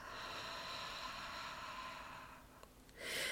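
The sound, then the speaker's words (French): A long, breathy exhale through the mouth during a seated breathing exercise, a soft airy whoosh lasting a couple of seconds, followed by a short pause and the start of another breath. Quiet, with no talking. “elle se pratique assis ou assise, les pieds à plat sur le sol, le dos droit sans être verrouillé, et on va inspirer par le nez en gonflant le ventre et expirer par la bouche.”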